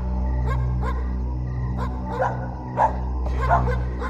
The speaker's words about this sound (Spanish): El sol se ocultó por completo y la gente no dudó en resguardarse cuando el aullido de aquella criatura se escuchó aún más fuerte y cercano, sin saber qué esperarse o de qué bestia podría tratarse.